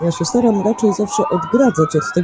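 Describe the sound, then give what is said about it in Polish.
Sirens of a police escort for a motorcade of government and police cars wail steadily outside a window near Nowogrodzka Street, rising and falling beneath a man speaking. “I to, co słyszycie, to jest właśnie kawalkada samochodów e, rządowych i policji, eskorta”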